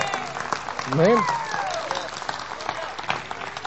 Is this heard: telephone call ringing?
no